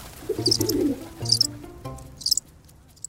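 Pigeons being fed in a park coo in low, throaty rolling bursts, three or so short phrases in a row, with brief high chirps popping in between. No one speaks.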